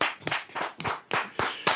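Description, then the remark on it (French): A short burst of sharp hand clapping from a small group applauding a game score of 160, the claps landing in uneven bunches for under two seconds, with no talking. “Ça s'applaudit, mes messieurs.”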